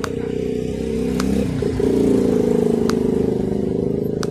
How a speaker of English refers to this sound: Where hang on, wait for this motorcycle to go by.